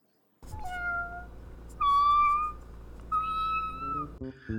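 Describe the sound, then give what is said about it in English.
A short jingle of three drawn-out cat meows, loud, each rising then trailing off, set over a steady low hum with no talking. “if you hear any other cat related sounds”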